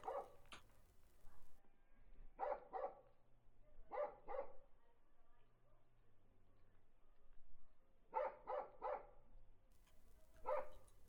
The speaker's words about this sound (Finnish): Kaukaa juuri erottuva koiran laiska louskutus.